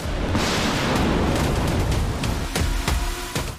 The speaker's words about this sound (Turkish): Yerli üretim güdümlü füze atmaca test atışında tam isabet sağladı, vurduğu gemide büyük hasar bıraktı. Cuma günü ilk milli güdümlü gemi savar füzesi atmaca için test günüydü. Füze ateşlendi, hedefini tam 12'den vurdu.